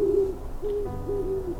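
An owl's hunting call in the northern wilds: a series of low, steady hoots, the first drawn out and the rest shorter, repeating at an uneven rhythm with no voices.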